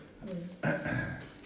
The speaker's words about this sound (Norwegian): Jeg Blir tror- det kremtet til